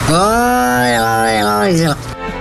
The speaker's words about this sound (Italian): Questa è la mucca, è la mucca. È una mucca, maestro.